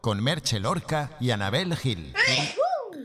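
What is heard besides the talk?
sneeze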